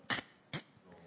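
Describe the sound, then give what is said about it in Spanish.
A chair creaks twice in quick succession, two short, scraping bursts, then a faint rustle afterward; no one speaks. “Es la silla.”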